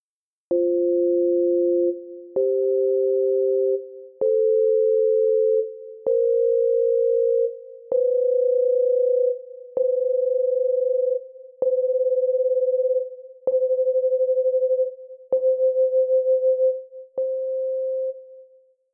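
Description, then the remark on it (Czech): Two steady pure tones sound together in about ten short steps, drawing closer in pitch each time until they nearly merge and the sound pulses with a fluttering beat. “Čím blíž jsou k sobě, tím větší drsnost se dostavuje, až oba tón splynou v jeden a slyšíme rázy.”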